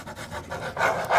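A pen scribbles a large signature on the back of a sheet during a radio show, a series of quick scratchy strokes in a loose rhythm that grow a little louder toward the end, with a brief laugh in the background.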